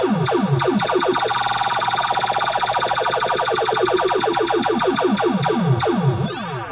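A pinball machine's lit spinner sound effect: a loud, rapid stream of warbling electronic chirps and sweeping tones, repeating quickly for several seconds before cutting off abruptly, with no one talking.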